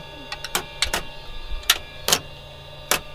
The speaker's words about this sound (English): You can probably hear um, some switches being flicked if I do it correctly here.